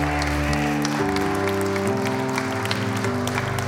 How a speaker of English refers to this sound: Come on and give him a hand clap of praise in this house today.